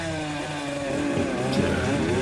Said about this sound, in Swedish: Och de startar sina tuffa mopeder